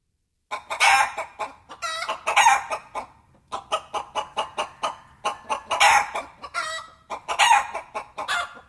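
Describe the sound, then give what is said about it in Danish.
A flock of chickens clucks in quick, overlapping bursts, with a rooster crowing loudly now and then among them, busy like a farmyard, with no one talking. “Helt det skal handle om kyllinger, og mere præcis så skal det handle om den hurtigt voksende slags, den slags, vi kalder for turbokyllinger.”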